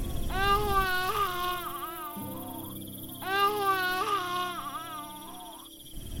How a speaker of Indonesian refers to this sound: Pas dia lagi buang air kecil, Dewi mendengar suara bayi menangis.